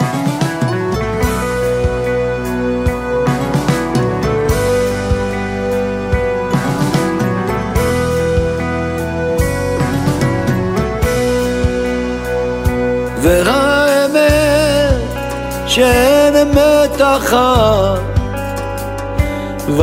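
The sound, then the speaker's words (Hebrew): A Hebrew pop song plays at full volume, with sustained instrumental chords and a steady beat, and a wavering sung melody rises more prominently in the second half. “אני בעד להקשיב לשיר”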